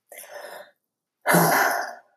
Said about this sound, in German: So tief einatmen und wieder ausatmen. Also über die Atmung, das ist der schnellste Weg.